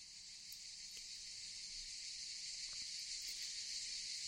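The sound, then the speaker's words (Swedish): Cicadas chirp in a forest at midday in a dense, unbroken high-pitched drone that fills the whole stretch, steady and fairly loud, with no voices and only a few faint ticks underneath. “Nästa dag vid middagstid, då solen stod som högst på himlen och skogen ekade av cikadornas skrik.”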